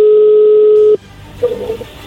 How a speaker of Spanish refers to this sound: No haga ruido, ahí entró la llamada.